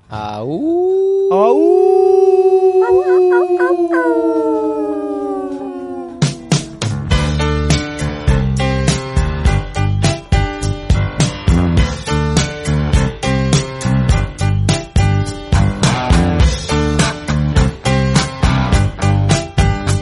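pop rock song playing

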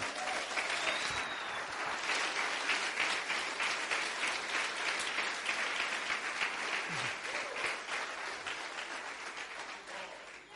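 audience clapping hands

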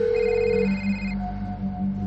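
mobile phone ringing

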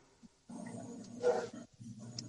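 tigers roaring

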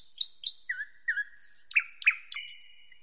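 small birds chirping

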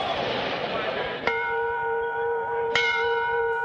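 railway station bell ringing

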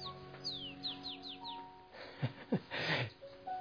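small birds chirping

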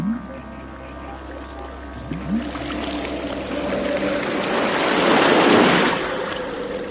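sea waves

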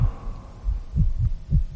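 pounding heartbeat sound effect

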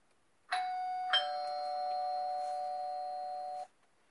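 doorbell ringing

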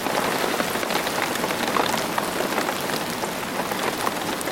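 rain sound effect

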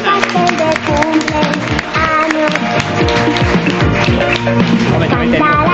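applause

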